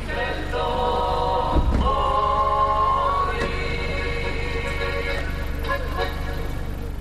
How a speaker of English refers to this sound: Near the town square of Idria, a man sells fish out of a trailer. It's a sunny day, and a few of his customers hang around as their cars idle. A stereo blasts Slovenian folk music.